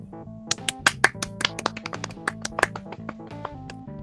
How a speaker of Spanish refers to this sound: Y a todos los participantes, démosles un fuerte aplauso.